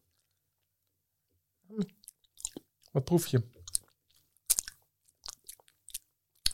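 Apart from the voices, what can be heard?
loud lip smacking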